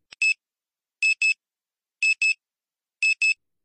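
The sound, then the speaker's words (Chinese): An alarm clock beeps on a Monday morning, ringing over and over in a steady pattern of quick double pulses, four pairs about a second apart, high-pitched and electronic with nothing else sounding between them. “星期一的早晨，闹钟响了一遍又一遍。”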